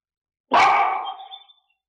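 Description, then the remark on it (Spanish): A single loud dog bark rings out after a moment of silence, its harsh tone trailing off over about a second, with no voices or other sounds around it. “oyen a los perros ladrar los pájaros.”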